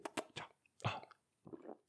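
Quiet mouth sounds of someone sipping wine after a toast: a few short wet slurps, a soft plop-like thump midway, then another brief sip, with no talking.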